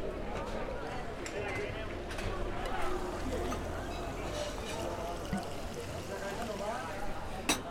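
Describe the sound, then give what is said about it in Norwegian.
Carbonated water fizzing as it is poured, recorded with the microphone held up to it, a steady crackling hiss lasting throughout, with muffled voices murmuring in the background. “så la jeg mikken inntil eh, brusinga når jeg helte oppi, oppi vannet.”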